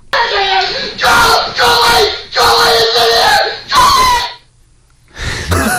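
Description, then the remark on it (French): A man screams in fright after a squirrel jumps into his office, a series of loud, high-pitched, strained shrieks, five or so bursts in quick succession, then a brief pause before another cry starts. “Puis tout d'un coup, il y a un écureuil qui saute dans son bureau et il commence à crier.”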